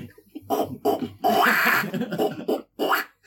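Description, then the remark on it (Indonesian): A person's voice imitates a fussing baby with a run of short, whiny grunts and squeals rising and falling over about three seconds, no actual speech. “Kalau suara bayi kan gini.”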